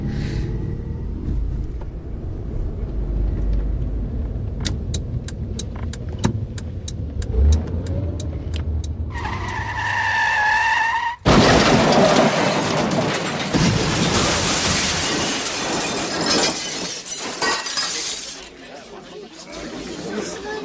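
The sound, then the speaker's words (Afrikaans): Steady traffic rumble with a quick ticking, then a short wailing screech just before a sudden, loud crash as a red car speeds through a red traffic light into a BMW, followed by a long rush of clattering noise that slowly fades. “rooi kar het reg oor die rooi lig in die BMW vasgejaag.”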